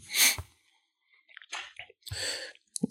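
Mouth sounds of someone chewing food: moist, irregular smacks and squishes in a few short bursts with brief pauses, nobody speaking.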